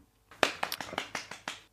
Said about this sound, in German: in der Regie klatscht Beifall